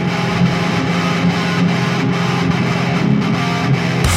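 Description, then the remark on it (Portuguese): Loud, dense distorted hardcore punk music with fuzzy saturated guitars and driving drums filling the whole span, fast and relentless with no voices breaking through. “Aumenta o volume que a galera tá vindo aí com muita distorção e muito hardcore.”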